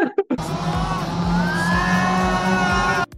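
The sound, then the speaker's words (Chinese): A crowd of junior high and high school students screams together on the Tian Xuan Di Zhuan amusement park ride, a loud, sustained, high-pitched chorus lasting about three seconds, with a low rhythmic rumble underneath, then cutting off abruptly. “现在，因为我们今天来了国中跟高中的小朋友们，算小朋友嘛，好了，我是有、嗯、就是年轻人，现在那个尖叫声超刺激的。”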